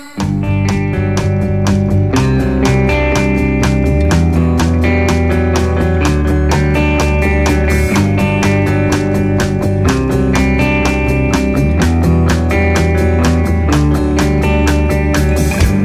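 An upbeat pop song plays loud, with a steady, bouncy beat and bright layered instruments running continuously from start to finish, no talking over it.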